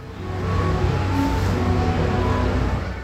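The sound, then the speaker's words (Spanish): Wind sweeps through tree leaves on a mountain, about 1479 metres above sea level, in a steady, full rushing hiss, swelling slightly like surf, with no voices present. “el sonido de las hojas movidas por el viento es justo como olas que rompen contra la costa”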